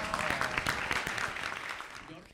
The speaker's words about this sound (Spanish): Así que muchas gracias. Un fuerte aplauso